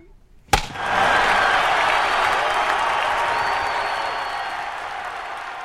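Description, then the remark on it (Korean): A large baseball crowd at Jamsil Baseball Stadium roars and cheers, bursting in suddenly after a sharp hit and holding a loud, dense wall of noise that slowly eases off over several seconds. “천둥 같은 응원 소리도 유치원 칠판보다 수백 배나 큰 전광판도 내 눈엔 모두 신기하기만 했다.”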